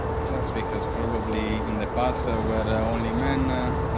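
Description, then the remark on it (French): A rigid inflatable boat named Daisy, one of the boats carried aboard the Esperanza, runs its outboard motor steadily: a loud continuous droning hum with a whining tone that shifts slightly in pitch over a few seconds. “C'est un des bateaux semi-rigides embarqués sur l'Esperanza.”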